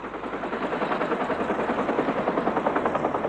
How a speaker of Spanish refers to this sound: Dos años después de la firma de los pactos, caía Saigón en manos del régimen comunista, mientras los últimos diplomáticos y refugiados salían corriendo en helicóptero desde el techo de la embajada estadounidense.